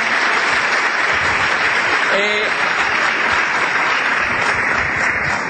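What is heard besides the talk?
audience applause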